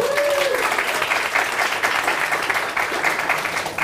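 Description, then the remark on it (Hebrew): Steady audience applause from people gathered at the Cato Networks offices, a dense wash of many hands clapping at an even loudness throughout, with a brief rising whistle-like tone at the very start. “אז תודה על האירוח במשרדי קייטו נטוורקס, ותודה לכל מי שהגיע, כפיים, כן.”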